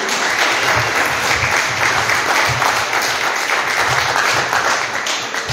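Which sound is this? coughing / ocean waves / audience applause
audience applause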